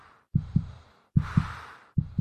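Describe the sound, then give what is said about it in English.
A muffled, racing heartbeat pounds alone, three double thumps in a steady lub-dub rhythm with a faint breathy hiss between beats. “Heart racing, rapid breathing, sweaty palms, all a normal response to stress in humans and caused by adrenaline.”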